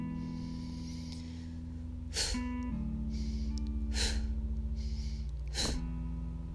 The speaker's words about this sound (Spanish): Y sigue inhalando profundo y exhalando y ahora vuelves a hacer respiración corta.